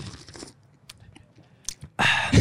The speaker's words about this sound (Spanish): pero antes de comenzar con esto, quiero que le des un trago a tu café. Porque ¿qué es el primer capuchino que preparo en mi vida entera. Acércate mucho la bocina para que suene así el ASMR.